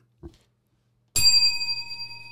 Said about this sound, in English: let's talk about the weather i had to get the, the bell